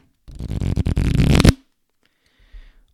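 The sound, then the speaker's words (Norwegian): A deck of cards is riffled, a rapid burst of crisp flapping clicks lasting over a second, followed by a brief quiet shuffle of handling. “nå skal jeg ta på kortstokk her, så nå hører man litt uh, lyder.”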